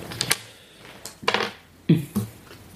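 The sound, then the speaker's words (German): A small six-sided die is rolled to determine damage, clattering and tumbling across a hard surface, a few quick rattling clicks in scattered bursts before it settles, fairly quiet with no voices. “Also musst du mal ein W6 würfeln.”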